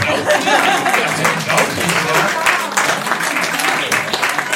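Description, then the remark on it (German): Steady, dense applause from a crowd, many hands clapping at once in a loud, continuous wash that holds evenly throughout, with some voices mixed faintly into the noise. “Ja, jetzt Sie Applaus.”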